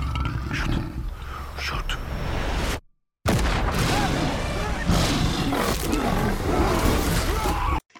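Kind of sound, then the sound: animal, lion roaring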